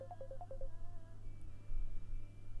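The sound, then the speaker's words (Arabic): A quick series of about six short electronic phone dialing beeps at alternating pitches as another call is placed, followed by a steady tone over a low hum, fairly faint. “اتصال تاني التليفون هنج يا جماعه”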